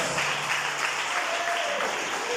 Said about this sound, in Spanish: Denle un aplauso a Cristo Jesús.